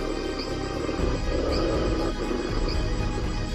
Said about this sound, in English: Soon, she found herself and her father Morris surrounded by ferocious wolves.